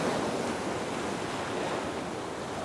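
Atlantic Ocean waves in Portugal wash in a steady, broad roar of surf, with a hint of wind noise, heard alone with no voices and holding at an even, moderate loudness throughout.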